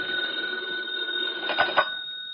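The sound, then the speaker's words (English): A telephone bell rings steadily in Britt Reid's office with a bright, sustained metallic tone, followed by a couple of soft knocks near the end, heard alone at moderate loudness. “A short time later, Britt Reid was busy in his office when the phone rang.”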